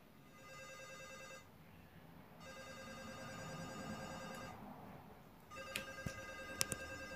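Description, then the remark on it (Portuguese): A phone rings in repeated bursts of bright, harmonic tones separated by short pauses, three rings in all, with a few sharp clicks near the end and no talking, as a speech therapist tries a call again at the end of her workday. “O telefone tocou algumas vezes.”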